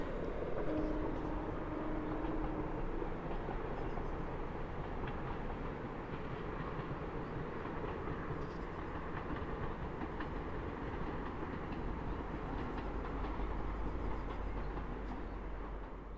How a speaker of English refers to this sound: And that's the train going into St Ives. On the railway line just above me.